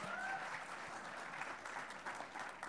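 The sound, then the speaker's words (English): A church audience applauding steadily to welcome a woman to the front, a dense wash of many hands clapping at once that holds an even level throughout, with no voices standing out. “Y'all give it up for Melanie.”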